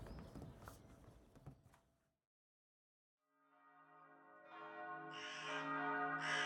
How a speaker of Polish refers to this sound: Dzwony kościoła biły na wieczorną mszę.